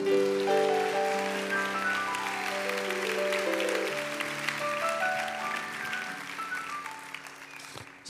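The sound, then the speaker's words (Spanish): An audience claps steadily for the Lord in a dense, crackling wash of applause, with sustained keyboard or organ chords playing underneath. The clapping fades slightly toward the end. “Digo un aplauso fuerte al Señor por eso.”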